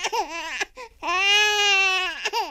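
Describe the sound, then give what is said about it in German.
A small baby cries loudly, a short wailing burst followed by a longer sustained, tightly pitched cry, with brief gasping pauses between them. “Kleine Babys schreien vor allem, wenn sie weinen.”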